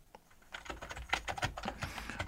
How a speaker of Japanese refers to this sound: もともとは白っぽかったんだけれども、今は何だろうな。小学校とかのパソコン室にこういう色あったな。Windows 95みたいな色してますからね。そんなに愛用しているこれがそのキーボード。えー、じゃあちょっと叩いてみようかな。